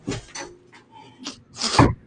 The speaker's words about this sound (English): Oh, my roommate came and closed the door.